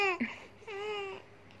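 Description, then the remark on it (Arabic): A baby girl whimpers and babbles: a brief fussy wail, a short pause, then a longer, steady high-pitched cry that trails off into quiet. “وكنت بسايف النوتس دي وسميتها الأغنية زائد عياط”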